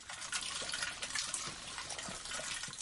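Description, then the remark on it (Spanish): Liquid streams steadily from buckets in a trailer riddled with bullet holes and splashes onto the floor, a continuous hissing, splattering pour with small irregular surges throughout and no voices. “El líquido de los cubos chorrea hasta el suelo.”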